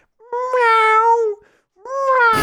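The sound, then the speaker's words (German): A person imitates a loud cat meow twice: two drawn-out, wailing, mid-pitched calls, the first longer, the second shorter and cut off, with nothing else in between. “Ich habe noch nie so, so einen Kater so laut miauen gehört”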